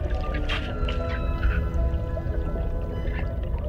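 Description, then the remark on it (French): Underwater ambience with a pod of dolphins: thin, wavering whistles drift over a steady watery rumble, broken by a few sharp bursts of clicks. The sounds are continuous, with no voices. “Tu entends les cliquetis et les sifflements de ce bande de dauphins”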